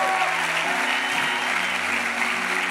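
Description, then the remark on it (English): An audience claps steadily, a dense, even wash of many hands with no gaps, holding a constant loudness throughout with a faint tonal hum underneath. “Young lady, just clapping next to the girl with the orange sweatshirt, blonde right there, black.”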